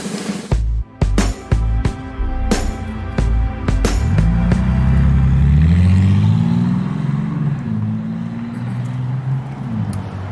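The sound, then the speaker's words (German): Loud car engine revving: a few sharp mechanical clunks at first, then the engine roars up in pitch and holds a sustained, throaty growl that slowly eases off. “Rührende Motoren.”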